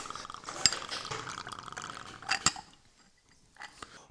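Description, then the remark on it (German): Fizzy Orangina is poured as a filler into a large glass over a 50-50 mix with Apfel Rouge, making a long drink, with a steady hissing stream broken by a few sharp glassy clinks, then it tapers off into quiet bubbling. “Und als Filler kommt jetzt Orangina.”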